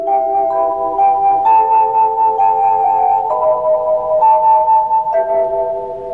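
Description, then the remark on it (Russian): A Mayak radio station call-sign jingle from the 1970s–80s: a short, steady melody of bright, bell-like electronic tones stepping between pitches about every half second, fairly loud and played alone without any voices. “а позывные маяка...”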